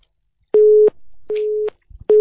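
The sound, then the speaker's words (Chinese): A telephone busy tone after a call disconnects: steady, mid-pitched beeps, each under half a second, repeating in a regular on-off rhythm with short silent gaps. No one speaks. “你看讲他愚痴，电话挂了，不是他挂的，菩萨不给他了，太愚痴了。”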